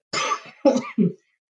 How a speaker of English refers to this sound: nothing like having a cough during the time period of COVID.